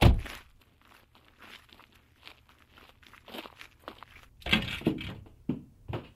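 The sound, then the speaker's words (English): A car's tires crunch slowly over a gravel driveway as it pulls in, in a steady granular crackle over a low rumble, growing louder with heavier crunches near the end. No one speaks. “Adrian's car crunched over Grandma Lou's gravel driveway, pulling in just behind Uncle Charlie's, just ahead of Aunt Roz's.”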